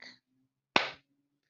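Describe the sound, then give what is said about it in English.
A single sharp hand clap marks the one syllable of the word "jack" in a syllable practice with the rhyme Jack and Jill, loud and crisp with a short decaying tail, after a brief faint burst of sound and a moment of quiet. “Let's clap the word jack.”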